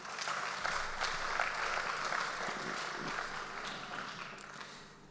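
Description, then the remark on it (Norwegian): An audience applauds steadily to thank participants of a demonstration as they return to their seats, a dense wash of many hands clapping at a fairly even level for several seconds before easing off slightly at the end. No one speaks. “Klapper for det.”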